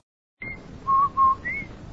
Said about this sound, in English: Did I hear what? That whistle. That's the Rinso White whistle.